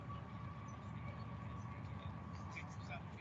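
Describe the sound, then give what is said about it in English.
A train rolls past on tracks beside a baseball field in Lexington during a night game, a steady, loud rumble of wheels with a sustained metallic hum, continuous throughout, with indistinct voices faintly in the background. “This is only like the second or third train we have seen the entire night here in Lexington”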